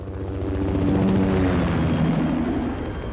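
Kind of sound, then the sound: vehicle, helicopter taking off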